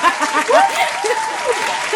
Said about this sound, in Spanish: inserte grito aquí. los aplausos de sitcom. Claro. Cuando entra la estrella invitada.